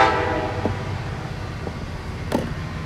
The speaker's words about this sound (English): I'm gonna let that train pass first.